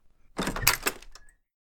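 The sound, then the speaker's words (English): A back door is opened, with a short clatter of latch clicks and rattling over about a second, then quiet. No one speaks. “He slipped on his boots and opened the back door.”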